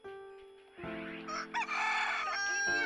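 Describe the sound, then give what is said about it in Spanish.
A rooster crows loudly, one long drawn-out call that rises and holds for about two seconds, with a faint steady hum underneath and no talking. “¡Ay, che gallo!”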